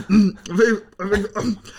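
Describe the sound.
A voice imitates throat clearing and hacking in four quick, rough bursts, fairly loud, with no other sounds around it, acting out coughing after a bite of food got stuck in the throat.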